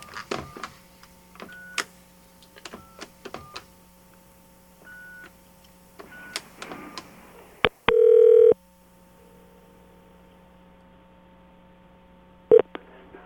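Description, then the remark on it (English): A rapid series of phone keypad beeps and clicks while a number is dialed, then one loud, steady ring tone and, after a quiet pause, a short blip on the line. “I'm going to get him on the phone. Okay. Okay. Here we go. Calling him up.”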